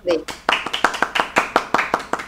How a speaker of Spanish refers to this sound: Ok, vamos a dar un aplauso